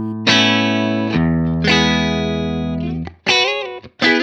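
Electric guitar played through a Super Bass amp emulation, with sustained, slightly distorted chords ringing out richly, then a few shorter strummed chords with brief gaps between them; no talking.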